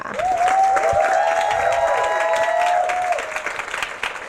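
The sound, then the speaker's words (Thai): An audience claps steadily for about three seconds, a dense, even patter with some sustained cheering tones mixed in, then the applause thins out and fades. “ก็ต้องเสียงปรบมือให้จิมดอนแน่นด้วยค่ะ”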